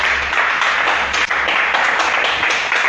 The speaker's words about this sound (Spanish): Porque Fusion, señores, no es de Estados Unidos, Fusion es peruano. Un fuerte aplauso para eso.